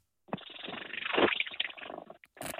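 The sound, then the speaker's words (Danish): A cat purring, a steady, raspy rumble that swells and fades for about two seconds, sounding almost like a small outboard motor, before a short gap and a brief resumption. “Men lad os høre den lille kat.”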